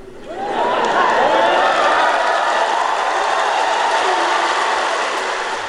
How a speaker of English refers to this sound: The troops cheering for Joe Biden there upon his arrival in Europe and his promise to tell Putin what it is he wants him to know, whatever that may be.